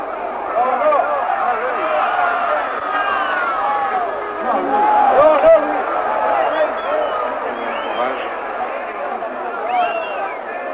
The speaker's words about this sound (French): Et vous entendez l'ambiance des arènes en ce moment, à la minute de vérité. Tout le monde haletant attend la mise à mort.